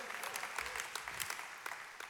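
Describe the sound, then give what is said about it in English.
A church audience on Mother's Day claps steadily for the women, a dense wash of many overlapping hand claps with a few sharper individual slaps standing out, sustained at an even moderate level throughout. “One more time, I know you clapped a lot.”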